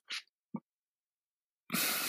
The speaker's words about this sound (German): Jetzt rülpst du mir in die Aufnahme rein. Das hm. kam durch das Fruchtgummi. Entschuldigung. Ich hatte gehofft, dass man das nicht hört.